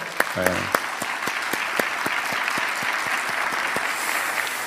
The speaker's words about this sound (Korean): 할렐루야. 우리 주님 앞에 영광의 박수 올려드릴까요?